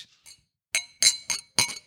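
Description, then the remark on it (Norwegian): Glasses clinking together in a toast, several bright ringing chinks in quick succession after a couple of faint taps, fairly loud with no talking. “Nå gjør vi sånne ting som, som vi ikke får lov av hylle, og det er å skåle.”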